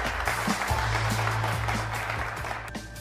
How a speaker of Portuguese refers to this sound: pues quiero pedirles un caluroso aplauso a la nueva joya de la moda internacional. Rubí, por favor.